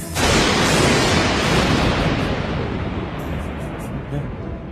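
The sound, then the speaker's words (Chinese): A loud, sustained roll of thunder as rain is about to start begins with a sudden crack and then rumbles on with deep, broad noise that slowly eases over several seconds, with no voices. “哎呀，呃，不好，要下雨了，赶紧回家去。”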